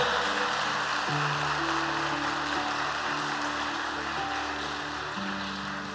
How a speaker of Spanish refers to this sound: Le damos un aplauso al Señor por eso. Fuerte ese aplauso para Él.